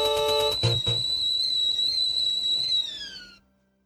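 Eerie horror background music from the Resident Evil video game: a thin, sustained whistle-like tone hangs over a dark, low rumbling bed, with a couple of heavy hits early on, then slides downward and fades out.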